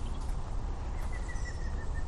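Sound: song thrush singing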